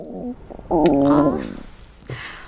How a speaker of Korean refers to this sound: 남자는 다시 눈을 감았고 제가 안절부절 못하는 사이 눈치도 없이 제 배에서는 또 꼬르륵 소리가 나는 거예요.